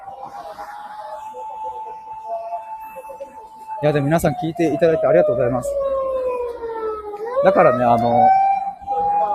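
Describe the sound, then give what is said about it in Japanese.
A steady siren-like tone hums through the whole recording with a slowly sliding pitch, heard over a man talking while walking outdoors along a street, with a faint background wash of car traffic noise. “車の音がすいません。”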